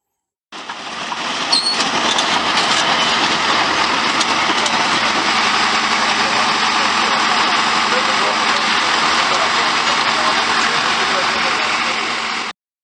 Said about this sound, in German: Wir wollen aber, da jetzt in London eine Replika des ersten Panzers, die auch damals über ins Schlachtfeld gerollt sind, durch England getuckert ist, wollen wir euch kurz mal einspielen, wie es sich anhört, wenn solch ein Panzer fährt.